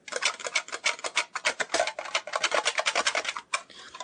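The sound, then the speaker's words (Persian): The small green metal box of the board game Dedan, about 10 to 12 cm in size, being opened, with a rapid series of dry scraping, rasping strokes that continue steadily for a few seconds, then a brief pause and a softer final scrape. “حالا بیاید با هم جعبه بازی رو باز کنیم و دربارش صحبت کنیم این صدای جعبه فلزی و کوچیک بازی ددانه”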